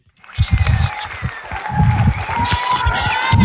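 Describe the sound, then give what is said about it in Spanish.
A crowd at a live Radio Emociones broadcast from the Museo Tonsú bursts into applause and cheering, dense clapping mixed with shouts and whoops that stays loud and builds slightly toward the end. “Que se oiga un aplausito, ¿se puede por aquí?”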